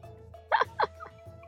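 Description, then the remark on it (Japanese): Two quick gulping swallows as someone drinks alcohol after a toast, followed by a couple of fainter throat sounds, all over a low steady hum. “ちょ、一回お酒飲みますね、乾杯。”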